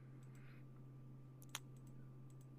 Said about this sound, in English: Okay, sorry, clicking around, clicking around.